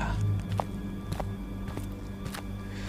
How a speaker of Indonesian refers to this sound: sayup-sayup kedengeran suara langkah kaki dari arah turun Waktu itu hujan udah nggak deres, tapi masih gerimis.